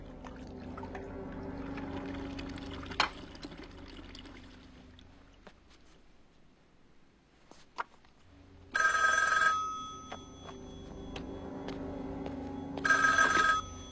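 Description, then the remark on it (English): An old-style telephone bell rings twice, two loud bursts several seconds apart, over a low background hum with a few faint clicks and knocks before the first ring. “And then the phone rings and Wendy picks it up and it's Jack.”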